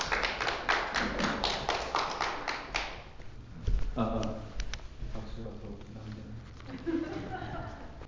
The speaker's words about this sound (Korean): 우리 박수로 좀 환영할까요? 예.